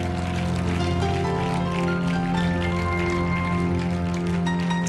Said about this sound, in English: Come on, let's clap our hands one more time to the Lord.